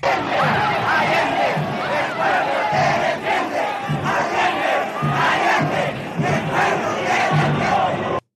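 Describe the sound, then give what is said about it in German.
A large crowd of Allende supporters chants the slogan "Allende, Allende, el pueblo te defiende" in unison, voices rising and falling in a steady rhythmic pattern, loud and sustained throughout without pause. “Allende, Allende, die Bevölkerung verteidigt dich.”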